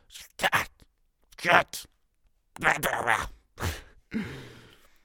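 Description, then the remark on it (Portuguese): A boy imitates a car crash with about five short bursts of crunching, hissing and squealing mouth noises, separated by brief pauses, the last one trailing off into a raspy fade. “Ah, é que o menino a imitar um acidente de carro.”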